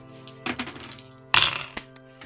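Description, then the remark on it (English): Dice clatter across a hard surface in a quick series of sharp clicks and rattles, with one louder burst of clattering partway through, then a few faint ticks as they settle. “Anyone yeah. who would like to roll may do so.”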